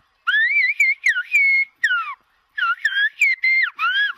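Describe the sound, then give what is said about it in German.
Loud human whistling in Silbo Gomero, the whistled language of La Gomera, in quick gliding phrases that rise and fall like speech, broken by short pauses, with no talking alongside. “man pfeift Silben, man hört eine Sprache und trotzdem klingt diese Sprache wie Natur, wie Vogelgesang, wie Klänge.”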